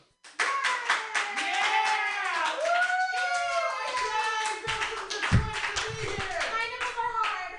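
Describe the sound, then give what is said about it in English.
An audience claps and cheers continuously as the host runs onto the stage with no music playing, at a show called Mutiny; a dense wash of many hands with excited voices and whoops rising over it throughout, loud and steady for several seconds. “I'm gonna run on stage and do a set, uh, but the music won't be playing, so you guys gotta clap when I run up there.”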